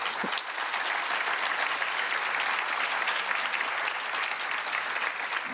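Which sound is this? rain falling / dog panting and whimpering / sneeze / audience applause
audience applause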